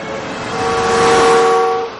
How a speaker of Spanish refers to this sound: Un coche circula por la calzada. Trevor se abalanza al paso del coche.